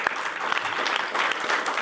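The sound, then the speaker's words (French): An audience on the show Bistrot Liberté applauds steadily, a dense wash of many hands clapping at an even, fairly loud level, with no talking over it. “On, on peut t'applaudir.”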